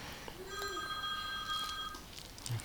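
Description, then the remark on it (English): A mobile phone ringtone sounds faintly: a steady, high electronic tone with bright harmonics holding for about a second and a half before cutting off, over soft background noise. “so long, not mean to embarrass you, but I was, I want to know if I got to turn off my phone.”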